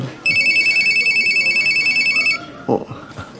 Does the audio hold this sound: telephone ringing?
yes